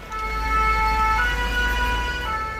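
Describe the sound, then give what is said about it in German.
Emergency vehicle sirens wail steadily in the evening at the fire of a burning cathedral in Paris, near the Seine bridges, their high tones holding over a constant low rumble of traffic or engines, with no voices. “Im Blaulicht der Einsatzwagen stehen am Abend hunderte Pariser Bürger und Touristen auf den Seinebrücken.”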